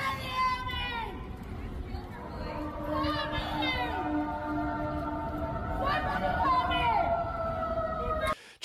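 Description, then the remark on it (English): Several emergency vehicle sirens wail and overlap, their rising and falling tones sounding continuously for several seconds over a busy, noisy street background before cutting off abruptly. “sirens in the background.”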